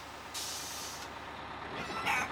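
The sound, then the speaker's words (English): A bus's air brakes let out a sharp hiss that holds for under a second, followed after a pause by a second, shorter burst of hissing air, fairly loud. “The bus hurtled down a rough byway, Calcutta invisible to him behind swaying heads and floating chicken feathers.”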